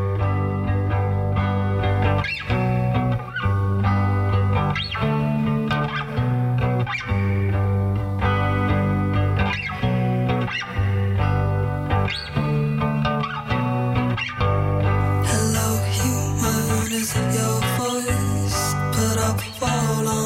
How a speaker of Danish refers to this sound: Lad os høre, hvad Viola har fundet til os, med, som er, skulle være et nummer uden trommer på.